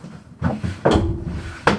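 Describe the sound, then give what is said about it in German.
A drawer slides open with a few wooden knocks and scraping bumps, ending in a sharper thud, fairly loud, with no one speaking. “Ja, klar, warte, ich mache eben eine Schublade auf.”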